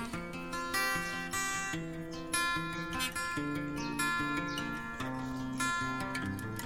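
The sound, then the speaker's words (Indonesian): A bamboo flute (seruling), played by Monang, a character in a storybook being read aloud, plays a flowing melody of distinct, clearly separated notes at a steady, moderate loudness, with a soft backing of lower tones and no voices. “Itu suara seruling monang.”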